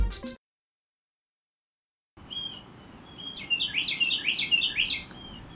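Birds chirp and sing in quick, bright phrases over a soft outdoor hiss, growing busier toward the end; a brief noise burst at the start is followed by a moment of silence.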